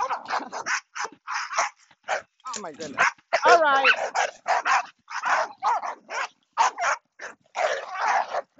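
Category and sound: animal, dogs barking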